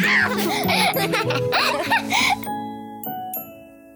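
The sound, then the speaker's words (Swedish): Bright giggling and laughter give way to a bell ringing, with a few clear struck tones that sustain and fade gently, moderately loud. “Ring klocka ring.”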